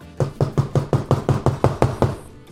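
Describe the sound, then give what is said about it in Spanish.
A rapid run of about ten knocks on a hotel room door, evenly spaced and fairly loud, thudding steadily for a couple of seconds with no voices. “Y de repente oigo que tocan la puerta.”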